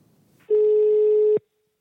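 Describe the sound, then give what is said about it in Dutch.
A single steady ringing tone on an outgoing phone call to Time to Connect, the line no longer crackling, a flat mid-pitched beep lasting just under a second, loud and alone, followed by silence. “Hij gaat over en hij kraakt niet meer.”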